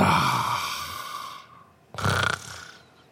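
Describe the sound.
A person imitates a snore that sounds like the syllable "ra": a long, raspy drawn-in rattle, a brief pause, then a shorter, louder snorting burst that trails off.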